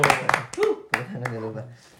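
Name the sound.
hand clapping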